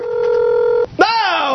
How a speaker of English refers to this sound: that's a phone. Hot topic, baby. was that Chewbacca? that was your drum roll.